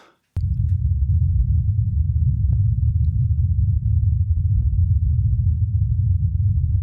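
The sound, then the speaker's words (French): Wind on Mars recorded by a microphone on a rover: a steady, muffled low rumble of wind buffeting the microphone, continuous and fairly loud throughout, with a few faint, sparse clicks on top and no voices. “Alors qu'est-ce que c'est C'est du vent C'est alors sur Mars, on entend essentiellement le vent.”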